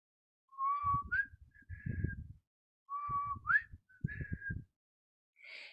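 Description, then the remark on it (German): Someone whistles the wedding march over a mobile phone call, two short repeated phrases of clear, steady tones with a brief pause between them, with a low rumbling underneath and no talking. “Es war wieder der Hochzeitsmarsch, der gepfiffen wurde.”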